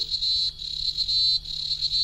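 cicada song

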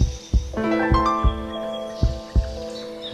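heartbeat sound effect

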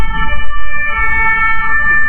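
police siren

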